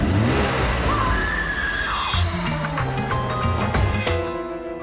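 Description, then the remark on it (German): A Ferrari sports car, converted for police use, accelerates hard with its engine roaring loudly, tires squealing sharply partway through before the revs climb again through gear changes. “Und künftig wird der Ferrari, der einst Kriminellen gehörte, zur Verfolgung Krimineller eingesetzt.”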